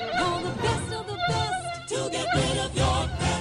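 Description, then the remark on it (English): A mosquito buzzes loudly and continuously, its thin whine wavering in pitch as if circling. No one speaks over it. “protect your family from mosquitoes that can carry West Nile and encephalitis.”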